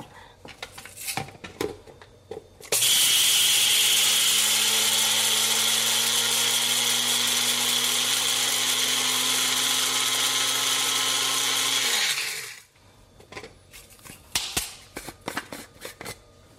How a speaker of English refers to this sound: All right, now let's get our spices ready. I'm gonna get some red Sichuan peppercorns in here, as well as some white peppercorns. And we're just gonna grind this until it's pretty fine.